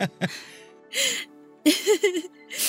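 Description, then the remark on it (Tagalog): A person cries softly, with shaky whimpering sobs and breathy gasps coming in a few short, uneven bursts separated by quiet pauses. “oh, ba't ka umiiyak?”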